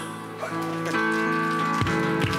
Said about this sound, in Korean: 박수!